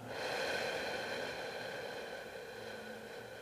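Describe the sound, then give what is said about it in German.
A long, slow, deep breath out during a breathing exercise, soft as a steady airy rush that tapers gently over about three seconds, with no talking. “Wir atmen ein und aus.”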